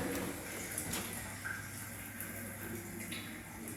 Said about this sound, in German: Was plätschert denn hier? Ich weiß nicht. Die Heizung? Oder draußen? Nee, das, wird noch, das hört sich noch ein Weltuntergang an.